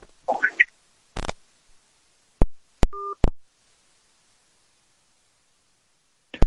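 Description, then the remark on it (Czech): A phone line cuts out: a brief garbled burst, then sharp clicks and a short two-tone beep, followed by dead silence and one final click. “Tak teď to vypadlo.”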